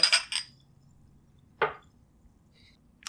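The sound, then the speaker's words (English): Glasses of seltzer, Boylan Seltzer Classic and Saratoga, clink together in a toast: a quick double clink, then another bright clink a moment later and a faint tap at the end, with no talking. “All right, here we go. Cheers, everybody.”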